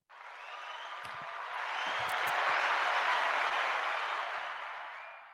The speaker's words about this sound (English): Should I use the applause button now? Go ahead, hit the applause.